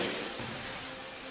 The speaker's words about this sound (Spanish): ruido blanco. Es el ruido blanco que hoy yo, verás. Como si lloviera. El ruido de la lluvia en el techo, no sé.